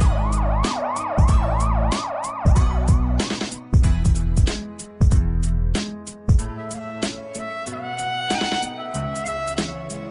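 Loud emergency sirens wail in quick repeating rises and falls at the start, layered over a pounding musical beat that carries on after the sirens fade out.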